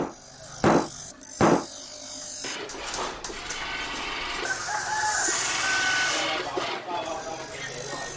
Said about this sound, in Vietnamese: Nhưng đâu đó vang lên những tiếng búa cao su, tiếng kim loại va vào nhau loảng xoảng.